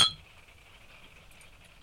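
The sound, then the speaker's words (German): A single bright clink of glasses touching in a toast in a caravan studio, sharp at the start and then ringing faintly as a thin tone that slowly fades, with no voices. “Oder sollen wir einfach optimistischerweise anstoßen in unserem Wohnwagenstudio und starten mit dem verregelten Podcast?”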